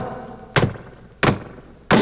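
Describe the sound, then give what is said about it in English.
Three loud, heavy foot stomps land at a steady, unhurried pace, each a sharp booming thud against a faint background hum, with no voices. “Come on, everybody, and stomp your feet real loud.”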